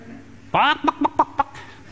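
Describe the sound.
A voice imitates a chicken: one drawn-out squawk followed by four quick, evenly spaced clucks, fairly loud with nothing else behind it.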